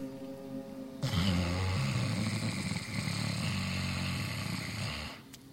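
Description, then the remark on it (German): A single long, rasping snore-like breath drawn in through the throat during a humming breathing exercise, fairly loud, lasting about four seconds with a rough, rattling texture before fading to quiet. “Dann atmet wieder schnarchend ein bis zum Herzen hinein.”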